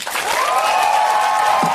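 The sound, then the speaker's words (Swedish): An audience breaks into steady, loud applause at the end of a speech, a dense wash of many hands clapping that holds at an even level throughout, with a faint sustained cheer or whoop riding on top. “Ja, jag applåderar gärna det där.”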